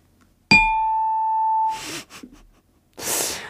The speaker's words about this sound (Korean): 자, 딩동댕. 아, 이번에 한 분이, 아, 이렇게 또 뽑히셨습니다. 정말 축하드리고요.